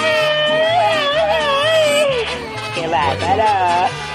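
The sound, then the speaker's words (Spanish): Babies wail loudly in a continuous, high-pitched cry that wavers up and down, with no pauses and a faint low hum underneath, having just woken up. “Ya despertaron los bebés, hombre. Los asustas, piensan que, piensan que eres la llorona.”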